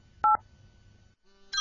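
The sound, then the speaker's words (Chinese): Two short electronic dialing tones from a mobile phone keypad as a number is dialed, each a steady dual-pitch beep, the first loud and brief, followed by a quieter hum and a second tone starting at the end. “响了呀，这不是我拿手机拨的吗？”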